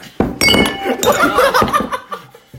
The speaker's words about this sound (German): Bier umgefallen. Aber wir dürfen nicht zu viel Geräuschkulisse machen, sonst nee, wird es unangenehm zum Zuhören.